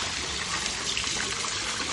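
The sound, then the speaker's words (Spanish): Small jets of water splash and trickle steadily into the basin of the Pila del Pato fountain, a continuous bright, bubbling wash of sound, with no voices present. “Creo que estaréis escuchando estos chorritos maravillosos de agua que están cayendo y, bueno, están haciendo, nos, están haciendo de fondo musical.”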